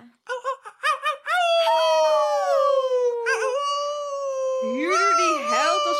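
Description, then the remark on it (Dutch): A human voice imitates a wolf howl: a few short yips, then a long, sustained, gliding howl that wavers and rises into a strained finish, loud. “Huurder die held als wolf uit dure flat Amsterdamse Zuidas gezet”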